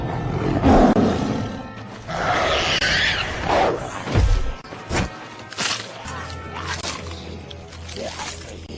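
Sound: tiger roaring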